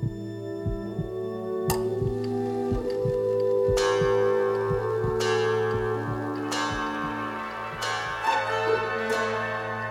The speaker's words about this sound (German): Sonntags um zwölf schlägt immer eine Glocke an.